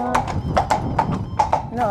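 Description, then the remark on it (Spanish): Horses passing by, hooves clip-clopping in a steady, uneven patter of sharp knocks, with murmured voices and a brief whinny-like tone near the end. “¿Cómo se escuchan los caballos cuando pasan, eh?”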